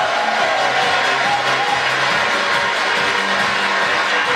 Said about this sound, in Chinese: 要不要掌声？